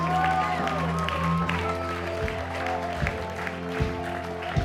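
audience clapping

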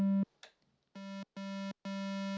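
synthesizer square wave tone

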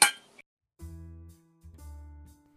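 glasses clinking

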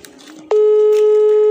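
telephone ringing tone

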